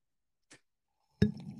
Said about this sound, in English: I will drink ah. some coffee to that.